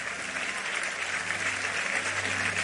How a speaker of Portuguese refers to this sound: Pode aplaudir o Senhor, né?